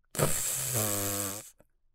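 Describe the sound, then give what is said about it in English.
A loud fart sound as a chemistry teacher sits down in a chair, one long blat lasting over a second: it starts as a raspy, noisy sputter, then turns into a steady buzzing drone that slowly drops in pitch before cutting off. “A big fart sound came.”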